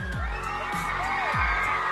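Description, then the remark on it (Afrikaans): A crowd cheers and applauds for the event's sponsors in a steady, dense wash of noise, with rising whoops and shouts on top and a few low thumps recurring through the roughly two-second stretch. “Kom ons gee 'n lekker applous vir ons borgers ouens.”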